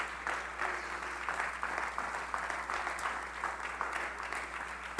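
A group claps hands unto Jesus steadily in a sustained wash of applause, many overlapping claps forming a dense, even patter at moderate loudness with no voices standing out.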